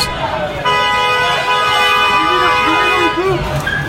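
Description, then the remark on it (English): A car horn blares in one long, loud, sustained honk lasting about three seconds as a driver honks at protesters in his way, who pound on the car, with agitated voices and street noise underneath. “there they are he's honking his horn he's pounding on the car and the, he just starts to move”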